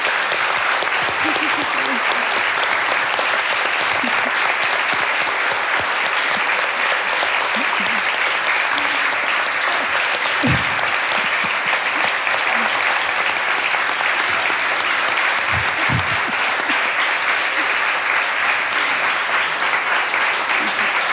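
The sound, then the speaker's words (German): Sustained applause from a live audience, a dense, steady wash of clapping that fills the whole stretch at an even, loud level, with a few faint voices mixed underneath. “Also wir bedanken uns mit einem großen Applaus oh ja.”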